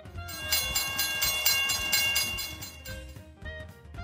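A subway train rumbles along the rails, a steady loud roar with rhythmic low clatter and high metallic squealing, gradually easing toward the end.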